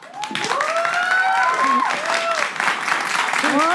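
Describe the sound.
An audience applauds steadily and loudly throughout, a dense wash of clapping with whoops and cheering voices rising and falling over it, as a guest is introduced on the show Roger González Presenta.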